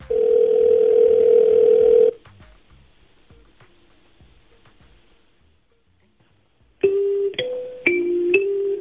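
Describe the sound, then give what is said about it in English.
A telephone ringback tone from a call placed to actor Efren Ramirez hums steadily for about two seconds, pauses in near silence, then returns as a slightly wavering electronic tone. No one speaks. “We get the phone number. We're going to give him a call, but we ran into some things, and here's how everything kind of played out.”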